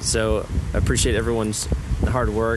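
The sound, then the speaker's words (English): Steady wind buffets the microphone with a low, rumbling roar that persists throughout while a person speaks over it. “And sorry for the wind that you probably hear right now.”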